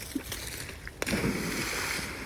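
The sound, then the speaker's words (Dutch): A stick thrown for a dog drops into water with one sharp splash, followed by a second or so of churning, bubbling water over a faint background of outdoor noise. “Nou, met die plons, ik weet niet of je die hebt gehoord, sluiten we deze podcast af.”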